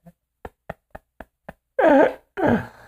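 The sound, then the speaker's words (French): A chair creaks: a run of six quick, evenly spaced ticks, then two loud, drawn-out groaning creaks with a wavering squeal, with no voices. “Euh, voyons ma chaise, à craque dombin ben.”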